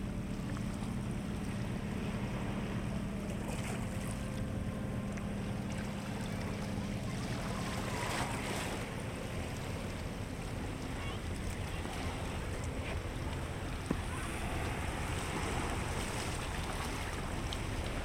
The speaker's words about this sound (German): Aber du machst dich noch einmal auf den Weg zum Strand und den sich an ihm brechenden Wellen. Diesmal wanderst du zum Second Beach.